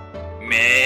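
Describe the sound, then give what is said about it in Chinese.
A single drawn-out sheep bleat: it starts as a soft, wavering tone, then swells suddenly into a louder, nasal "baa" that holds steady until the end, with no talking. “咩，绵羊应了一声”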